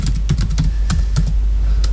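Rapid typing on a computer keyboard, a string of crisp key clicks in an uneven rhythm with no one speaking over them.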